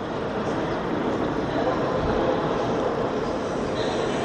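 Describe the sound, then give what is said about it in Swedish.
A steady, diffuse roar of indoor ambience fills a central railway station building with a high ceiling, with indistinct murmur and rumble blending into one continuous reverberant wash at an even level throughout. “Jag tror inte, tror inte att det skulle höras på det här sättet om det var lågt i tak.”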